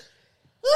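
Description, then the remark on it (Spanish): A brief quiet breath, then one sudden, loud sneeze, with no talking around it. “Salud. Jesús te ayude.”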